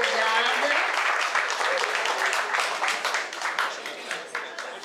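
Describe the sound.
A round of applause from a crowd: many hands clapping in a dense, steady wash for about five seconds, loud at first and easing slightly toward the end, with some voices mixed in.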